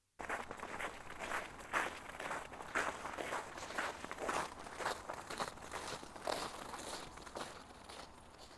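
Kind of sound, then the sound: human body sound, footsteps walking outdoors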